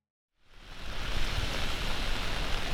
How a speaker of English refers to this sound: It's a rainy day in DC, and I'm currently by Piney Branch, which is a stream that flows into Rock Creek in northwest DC.